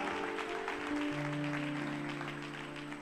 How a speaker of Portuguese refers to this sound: Sobrenatural, sobrenatural, pode aplaudir o Senhor, isso vai começar.